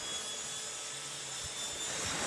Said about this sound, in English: Let's finish off the checklist. Pick a runway clear of jet skis and yachts and get going on the step. Right engine is turning. 12% fuel.